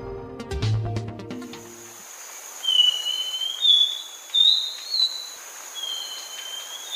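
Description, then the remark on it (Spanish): A thrush-like schiffornis calls after a short burst of music: a series of clear, slurred whistles rising and falling in about four drawn-out phrases against a quiet hiss, in recordings made in Nariño and Boyacá. “Estamos escuchando al saltarín turdino, en grabaciones captadas en Nariño y Boyacá, un pájaro de unos 17 centímetros de alto al que le gusta vivir en matorrales altos y en la parte inferior de los bosques húmedos.”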